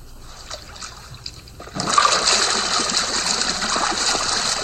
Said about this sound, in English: It's a whirlpool bath, sir. I think you'll enjoy it.